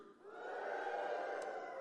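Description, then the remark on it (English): An audience lets out a sustained, unified "woo" cheer on a count of three, a steady loud swell of mid-pitched shouting that holds for nearly two seconds after a quick rise. “So I'm gonna say one, two, three, and you're gonna go, woo!”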